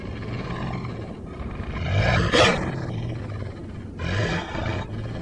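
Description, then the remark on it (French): A deep, menacing wolf growl rumbles, swelling into two harsher snarling bursts before settling back into a low, continuous snarl. No one speaks. “C'est à ce moment que vous entendez un grognement.”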